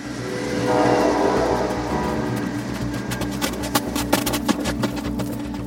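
A train rolls along the rails through Bohuslän with a steady rumble. Partway through, sharp rhythmic clacks from the wheels crossing rail joints join in. No one speaks.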